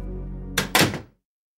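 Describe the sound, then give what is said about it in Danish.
A hospital single-room door shuts with two quick, solid thuds in close succession, the second heavier, over a low steady hum that cuts off as the sound fades, leaving silence. “Og jeg husker ikke øh, meget andet end, at sengen bliver låst fast og døren bliver lukket bag mig.”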